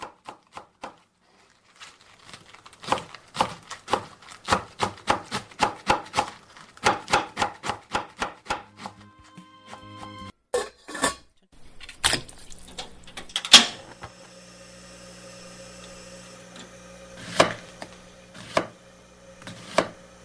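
In a kitchen where rice and a meal are being cooked, a knife chops steadily on a cutting board in quick, even strokes, followed by clattering kitchen noises, a sizzle-like hiss, and a few sharp knocks of utensils. No one speaks.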